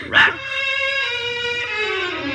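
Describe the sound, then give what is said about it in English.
A small brown and white dog, Toto, lets out a single sharp yip, then a sustained, high whine that slowly drops in pitch, fairly loud, with no one speaking. “Toto must have jumped out of her basket and run back home because there's a little brown and white dog looking all over for you.”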